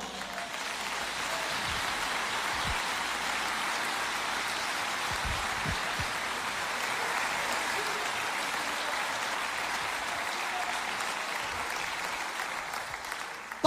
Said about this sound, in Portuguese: Glorificado seja o nome de Deus. Você pode aplaudir o Senhor?